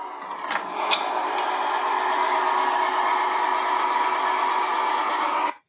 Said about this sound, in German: Das war oder? das Geräusch, genau, das war das Geräusch. ne? Wie als wenn so ein fetter, fetter Ziegelstein in der Trommel geschleudert wird, ne?